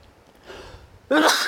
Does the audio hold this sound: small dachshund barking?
no